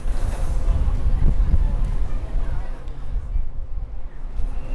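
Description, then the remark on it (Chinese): A Tze-Chiang express train pulls into a platform, recorded from the platform with a digital recorder: a loud, steady low rumble with a broad roaring wash over it, holding fairly even throughout with faint crowd murmur beneath. “我再给你听一段从月台的视角，哦，从月台的视角，然后呢，这一个声音呢是自强号要进站，而且这一段故事呢，是我即将带着这个数位录音机，然后它进站以后，我还要上车。”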